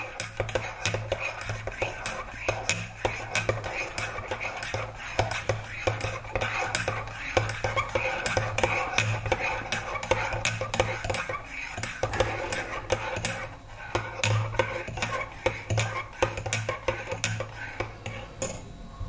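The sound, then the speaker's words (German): Cups and a spoon clink and clatter repeatedly while coffee is made in a kitchen, with scattered light taps over a steady low hum and faint background murmuring. “Und ähm, naja, bringen wir erstmal Kaffee zusammen machen wir uns einfach positiv Gedanken.”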